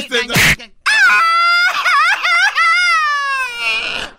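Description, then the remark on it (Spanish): A man wails loudly and tearfully, his long, quavering cry rising and falling in pitch for several seconds after a brief sharp burst of noise. “Él no está gritando un grito mexicano, él está llorando.”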